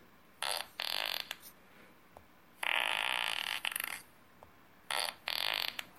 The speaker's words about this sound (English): And since I'm classy, I'm going to use fart noises. Also, my children love this, and I helped them to build an app like this recently with a picture of my really good friend. And when you press the picture of my really good friend, it plays.